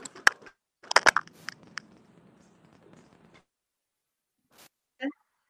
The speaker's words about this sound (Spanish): Estoy cambiando los micrófonos. ¿Este me escucha mejor?